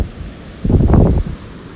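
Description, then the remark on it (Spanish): Wind and surf at the shore, a low steady rumble that swells into a brief rushing surge midway before settling back. No voices. “Aquí sentada frente al mar, leyendo este hermoso libro”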